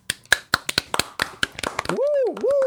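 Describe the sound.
A short burst of close, crisp hand claps from a few people, irregular and lively, fading after about two seconds as a voice breaks into a wavering, sing-song cheer.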